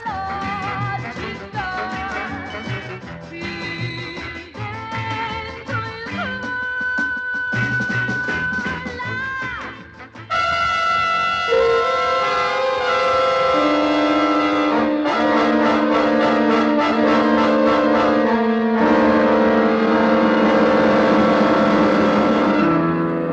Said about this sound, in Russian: звуковая дорожка резко меняется, буквально на полуслове. И вместо мелодичного хита мы слышим абстрактный авангардистский инструментал.